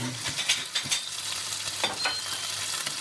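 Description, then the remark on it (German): Meat sizzles steadily in a hot pan as it is glazed, with soft scraping and spooning sounds as the pan juices are ladled over it; a continuous crackling hiss, with no talking. “Also es wird dann halt so glänzend durch das, was quasi in der Pfanne ist.”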